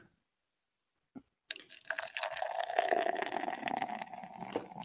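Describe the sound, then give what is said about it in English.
Light golden canned beer, 4.7% ABV and 12 IBUs, is poured into a glass: after a short quiet stretch and a faint clink, a steady splashing stream of liquid fills the glass, with foamy fizzing, continuing to the end. “After pouring it um, into this glass.”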